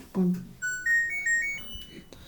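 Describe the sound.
A clothes dryer's power-on melody as the dryer is switched on: a short rising tune of about five clear electronic tones, moderately loud, following a brief voice at the start.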